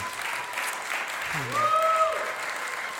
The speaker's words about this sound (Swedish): Det är fantastiskt att vi har sådana lovsångare som vi har i vår församling. Det är en enorm glädje och en enorm välsignelse för oss, eller hur? Ska vi inte ge dem en varm applåd?